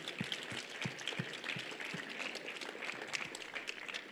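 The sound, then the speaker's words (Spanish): An audience applauds with dense, steady clapping that fills the whole stretch at an even loudness. A few regular low thumps sound beneath it early on, and no one speaks. “Si vamos a aplaudir, le vamos a aplaudir al único que lo merece.”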